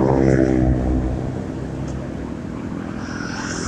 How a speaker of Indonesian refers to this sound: Oke, kemarin podcast pertama sama kedua pernah tapi ini ya beda kali ini ini podcast gue di motor